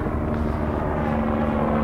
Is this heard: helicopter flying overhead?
yes